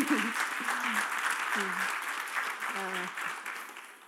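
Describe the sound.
An audience applauds for a woman, a dense, steady wash of many hands clapping for about four seconds and easing off slightly toward the end, with a few voices audible beneath it.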